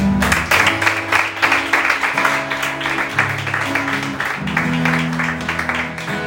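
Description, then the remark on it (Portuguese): A church audience applauds Jesus after a prayer, steadily for several seconds, a dense, continuous patter of many hands, with sustained low keyboard chords playing underneath. “Aplausos Jesus.”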